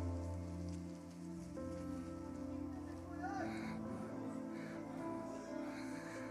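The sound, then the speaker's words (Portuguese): Many people crumple papers they have written on in their hands at once as a prophetic act, making a dense, continuous crackling rustle like heavy rain, with a steady low musical drone underneath. “Começa a amassar.”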